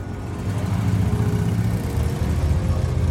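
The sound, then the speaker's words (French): A police motorcycle engine drones steadily on Route 114 at around 3:30 pm, a low continuous rumble holding roughly constant loudness throughout, with no voices. “Vers 15h30, une moto de la police passe sur la route 114, puis s'éloigne.”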